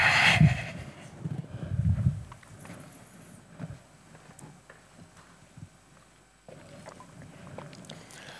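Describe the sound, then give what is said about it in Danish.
Water splashes and gurgles as it is poured into a glass, followed by a few soft clinks and quiet sips, with no talking. “Jeg skal lige have et glas vand.”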